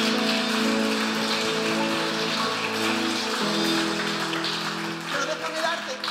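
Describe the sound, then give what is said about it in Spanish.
A crowd claps loudly and steadily for about six seconds, a dense crackling wash of applause with sustained musical tones underneath. “Dale un aplauso fuerte.”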